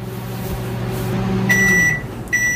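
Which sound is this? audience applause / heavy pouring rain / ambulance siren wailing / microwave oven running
microwave oven running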